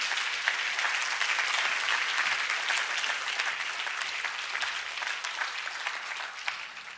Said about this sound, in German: Bitte komm nach vorne. Geben Ihnen einen großen Applaus.